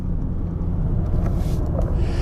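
A car's engine rumbles low and steady as the car is being parked at Haverdal Plantage, a forest in Denmark, with a faint airy hiss drifting in and out above it; no one speaks.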